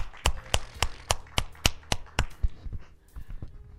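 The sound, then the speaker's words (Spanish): A church audience claps for the Lord Jesus Christ together in a steady, quick rhythm of sharp, crisp claps that gradually loosen and fade into scattered hand claps near the end. No one speaks. “¿Cuánto le dan un fuerte aplauso al Señor Jesucristo?”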